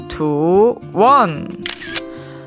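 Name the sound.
camera shutter clicking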